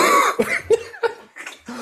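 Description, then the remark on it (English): A loud burst of harsh coughing from an adult, several quick hacking coughs in a row with short gaps between them, no talking. “I, well, my, my excuse is I have a kid, and then for some reason, Kids are always coughing, which means you're always coughing.”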